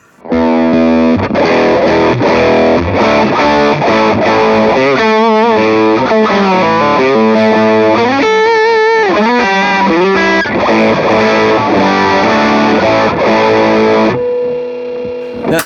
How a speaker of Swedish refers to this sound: Nu är vi tillbaka i Tube Screamer-land då.